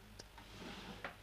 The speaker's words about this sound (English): Sorry, that was my phone.